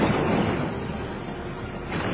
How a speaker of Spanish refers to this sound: Las balas de cañón iban minando las defensas del Álamo.